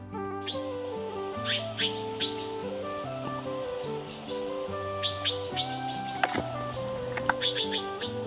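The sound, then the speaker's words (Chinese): Harsh, chattering calls of quarrelling magpies come in short, sharp bursts, several clustered near the start and another flurry later, over steady background music with low sustained notes. “不过吵起架来，嘎嘎嘎嘎的，就让人不敢领教了。”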